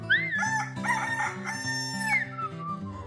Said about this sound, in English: Birdie is making friends with a rooster.